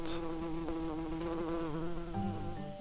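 A bee buzzes steadily, a loud continuous drone whose pitch wavers slightly as it hovers, with no voices.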